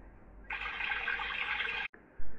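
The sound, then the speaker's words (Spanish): Water of a stream flowing in a steady burbling rush for about a second and a half, then cutting off abruptly, followed by a low rumble at the end. “Cruzaron el arroyo”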